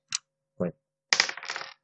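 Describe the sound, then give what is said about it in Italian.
Two dice are rolled for a luck roll in a game, coming up 5. They rattle and clatter across a hard surface: two quick separate clicks, then a longer burst of tumbling knocks that settles after about half a second. No one speaks. “Cioè sono di tier 2, quindi tirano due dadi.”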